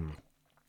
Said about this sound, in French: Oui, Gaïa, oui, c'est mon chat.